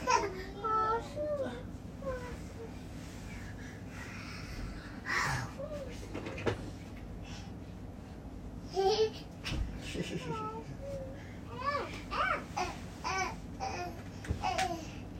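A baby fusses and cries in short, high-pitched bursts, breaking into whimpers and babbling sounds over a steady low hum, with brief pauses between the moderately loud outbursts.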